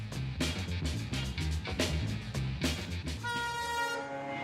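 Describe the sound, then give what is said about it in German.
A train on the Steigerwald railway between Schweinfurt and Kitzingen in Bavaria, Germany, recorded over 30 years ago, rumbles past with a steady rhythmic clatter of wheels over rail joints, then a loud sustained horn blast sounds near the end. No one speaks. “So hat es bei der Steigerwaldbahn zwischen Schweinfurt und Kitzingen ausgesehen.”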